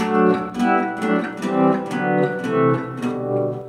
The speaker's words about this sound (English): I have a reverb pedal, reverberation. I'll turn that up and I'll turn it off too. So here's off, and here's with. You can swell into it with the volume pedal.